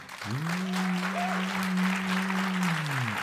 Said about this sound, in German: Okay, jetzt euer Applaus.